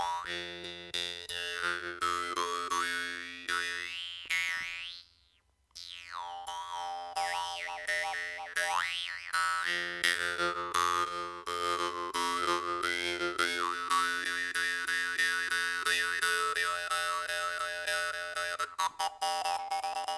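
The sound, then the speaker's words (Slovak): A Vietnamese lip jaw harp (dan moi), bought in Slovakia, is held between the lips and plucked, twanging steadily for about twenty seconds, its buzzing drone shifting with swooping, vowel-like overtones, with one brief pause early on. Fairly loud, with no voices. “Ďalšia drumbľa, ktorú vám predstavím, je perová drumbľa z Vietnamu, kúpená samozrejme na Slovensku a volá sa Danmoj.”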